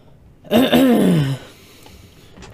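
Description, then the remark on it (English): A single drawn-out throat clearing, fairly loud, lasting under a second with a rough, descending rasp, followed by quiet background noise and a faint click at the end. “Sorry about that, clearing my throat.”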